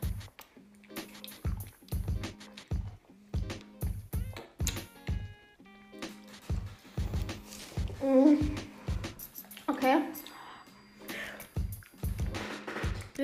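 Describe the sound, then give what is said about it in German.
Steady, crunchy chewing: a long run of wet, clicking bites repeating in an uneven rhythm, with a few faint mouth noises and hums mixed in and no clear talk. “wir kauen.”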